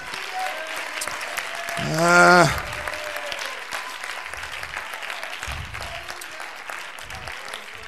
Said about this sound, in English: Would you clap your hands and say, man?